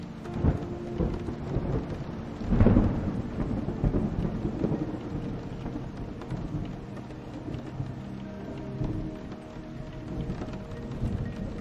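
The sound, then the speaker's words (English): A thunderstorm with a deep, rolling rumble of thunder swelling early on, then lingering low and steady beneath a constant wash of falling rain. No voices are heard. “Sleep as a thunderstorm and rain passes”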